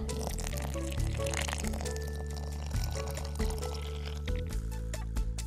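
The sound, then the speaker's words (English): Water pours steadily into a plastic Tupperware container holding one cup of whole wheat flour, to make a sourdough starter: a continuous splashing trickle with slight gurgling shifts, lasting several seconds with no voices. “All right, when I add this water to the flour, it's going to activate the bacteria in the flour.”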